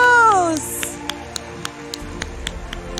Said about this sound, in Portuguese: Vamos aplaudir a Jesus!